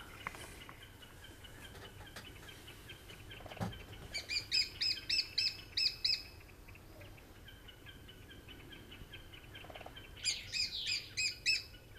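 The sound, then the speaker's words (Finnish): A lesser spotted woodpecker calls in two bursts of rapid, shrill, evenly spaced notes, a high repeated "kee-kee-kee" series, over a faint background of other bird chirps and soft ambient noise. “Kyseessä on pikkutikka, sitä ei sitten muuhun tikkaan kuitenkaan sekoita.”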